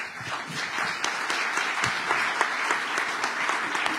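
An audience applauds steadily, a dense wash of many hands clapping at an even, fairly loud level throughout, with no voices rising above it.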